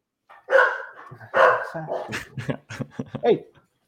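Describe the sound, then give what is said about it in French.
Dogs bark loudly, two long drawn-out barks followed by a rapid string of shorter yips and barks, fairly continuous for a few seconds. “Oh, mes chiens. oh, énervé le chien.”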